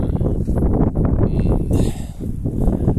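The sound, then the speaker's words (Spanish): Strong wind blowing outdoors on a windy day, a loud, steady low roar buffeting the microphone with slight surges in intensity, heard on its own. “en un día bastante ventoso como supongo que se escuchará”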